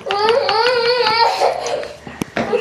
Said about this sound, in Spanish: A ver, espérame tantito porque oigo que está llorando mi hijo.